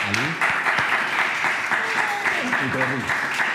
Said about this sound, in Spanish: Un aplauso.